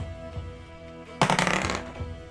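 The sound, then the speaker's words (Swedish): Dice are rolled in a game for a stealth check against 12, coming up 19: a short, bright clatter of rapid clicks lasting about half a second, louder than the quiet steady hum around it, with no talking. “Slå ett slag.”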